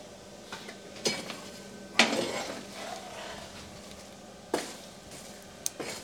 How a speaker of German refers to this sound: Machen wir ein Feuerchen. Und dann hat er ein wenig in der Kohle herumgestochert, ja, um, um möglichst viel Kohle zum Glühen zu bekommen.